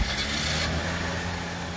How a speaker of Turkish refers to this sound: Ne kadar araba varsa hareket etti. Sesi onlar da duymuş olmalı.